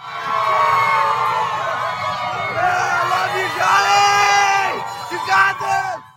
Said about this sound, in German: Johnny Depp gegen Amber Heard und auch das war Amerika, wie es leibt und lebt. Mit besagten Kreischen bei der Vorfahrt der sich einstmals liebenden und nun sich hassenden Schauspieler